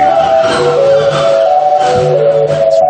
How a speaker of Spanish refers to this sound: Sube con fuerza …, y suena así